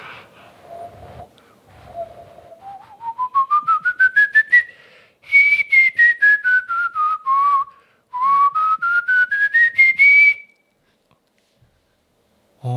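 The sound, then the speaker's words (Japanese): A person whistles, starting with a couple of low held notes, then quick staccato notes climbing the scale, descending, and rising again, with no talking. “低音はね、うん、まあ確かにあるかもしれないでも口笛の低音か口笛でも低音は多分ある程度限界あると思う高音はね、うん、結構 風になっちゃうじゃん多分俺の低いのでこれ”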